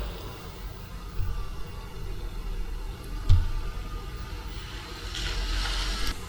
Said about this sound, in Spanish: pasan carros y aunque uno está dentro de una casa se escucha